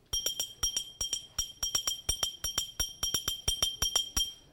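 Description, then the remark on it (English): A glass bottle is struck as a percussion instrument for the Nkwa Nwite dance, in a steady, fast rhythmic pattern, each bright clinking hit ringing with high metallic overtones, grouped in repeating beats, with no voices. “We use bottle. But this bottle supports the mascara.”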